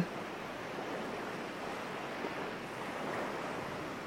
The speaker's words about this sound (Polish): Przejdź kilka kroków do przodu i poczuj na stopach chłodną wodę. Jest chłodna orzeźwiająco, ale nie zimna. Poczuj, jak te fale, które szumią, przypływają i obmywają Twoje stopy.